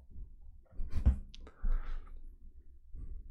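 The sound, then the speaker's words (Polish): A few short, sharp clicks of a computer mouse being pressed, over a low rumbling background with a faint soft hiss in the middle. “Kliknę tylko ino jedno.”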